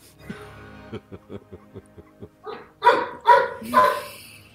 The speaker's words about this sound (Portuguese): E o cachorro também tem voz. O cachorro também tem lugar de uau. De au, au é lugar de fala, né?